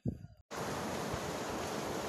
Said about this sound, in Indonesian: Hai, dengar nggak bunyi hujan yang rintik-rintik?